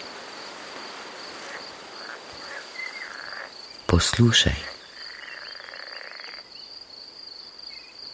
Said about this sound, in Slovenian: Poslušaj ptice žabe, šelestenje listja.